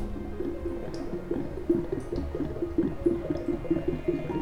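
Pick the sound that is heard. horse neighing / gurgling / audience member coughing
gurgling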